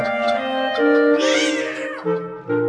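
A cat yowls in distress with a few loud, drawn-out meows that bend up and down in pitch. There is no talking.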